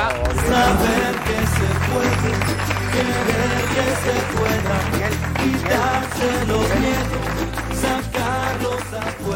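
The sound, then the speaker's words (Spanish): Loud, continuous audience applause fills the whole stretch, a dense wash of many hands clapping, with a musical backing with steady bass notes playing underneath. “un aplauso”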